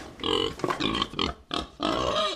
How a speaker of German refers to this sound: Wildschweine. Ja, weil die essen die Eicheln. Schaut mal da unter der Eiche, kann man es heute gerade super sehen. Da ist ein Kreis herum und da wühlen die ständig dieses Jahr nach Eicheln.